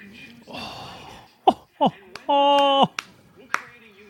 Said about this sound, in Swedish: Det är ju så att jag sitter här och applåderar. Det är nice.